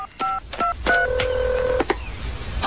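Several touch-tone keypad beeps from a phone being dialed, short paired tones in quick succession followed by one longer held tone, clear with no voices.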